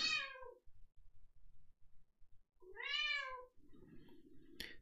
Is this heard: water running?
no